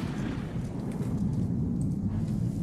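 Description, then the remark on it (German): A deep, far-off explosion rolls out as a steady low rumble, heavy in the bass and lasting the whole moment without a sharp crack, like a blast heard from a distance. “Dann in oh. der Ferne noch eine Explosion.”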